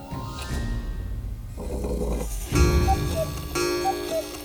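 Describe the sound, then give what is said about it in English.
A cuckoo clock on a fireplace mantel strikes noon, giving two clear descending two-note cuckoo calls over a whirring mechanical hum and soft ticking, moderately loud, with no voices. “Once the new hour hit, the cuckoo emerged.”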